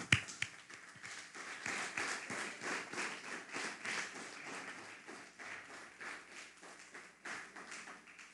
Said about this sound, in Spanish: Vamos a dar un fuerte aplauso a lo que está pasando.